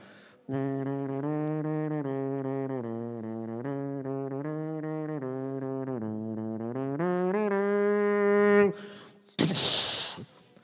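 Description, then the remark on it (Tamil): A mimicry artist's voice hums a suspenseful spy-style theme from James Bond films in steady, stepping notes for about eight seconds, then breaks into a short, harsh noisy burst imitating a car chase. “முக்கியமாக அந்த theme music எல்லா ஸ்டேஜ்லேயும் நான் மெமிக்ரி பண்ணியிருக்கேன் அந்த கார் சேஸோட எப்படின்னா”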